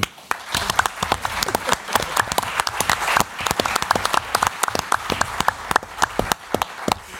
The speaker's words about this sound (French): C'est pour ça que nous avons fait appel d'abord et avant tout à quelqu'un que je vous demande d'applaudir chaudement, Marilyn Jess.